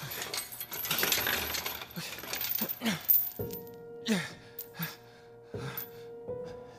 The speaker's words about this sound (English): Ben takes the keys from Dennis's pocket and unlocks the chains on Ava.